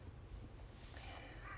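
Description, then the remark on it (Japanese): Crows caw, their harsh calls faint and blending into a steady low background rumble, with no one speaking. “はい、というわけで今日はカラスの声が BGM になってしまいましたが何してるんだろううるさいね”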